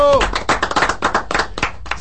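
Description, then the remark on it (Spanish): A short burst of applause: quick, irregular hand claps rattle on for about two seconds at a steady loudness, with a brief voice at the very start. “Y vale un aplauso, mis hermanos.”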